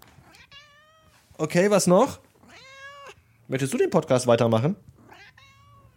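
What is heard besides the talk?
cat meowing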